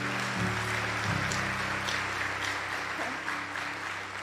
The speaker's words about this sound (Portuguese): Pode aplaudir o Senhor, porque Ele é digno.